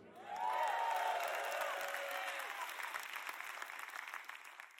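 A crowd bursts into sustained applause with cheers and whoops, a dense wash of clapping that swells quickly, holds steady, then slowly thins out over several seconds.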